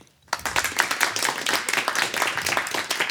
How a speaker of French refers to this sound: Je vais vous demander un applaudimètre pour l'équipe des biquettes. Applaudissez